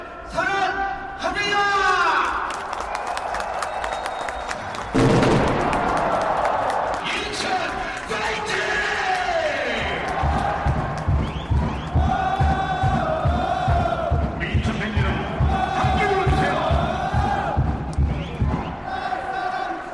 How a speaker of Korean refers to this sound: 많이 볼 수 있는 분들이 바로 서포터즈입니다. 이분들이 조직적인 응원을 하면서 축구 팬들의 목소리를 하나로 모으고 있는데요.